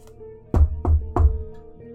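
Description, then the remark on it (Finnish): Three heavy knocks on an outside door, evenly spaced in quick succession, each a deep, solid thud over a faint steady hum, with no voices. “Silloin ulkoovelta kuului koputus.”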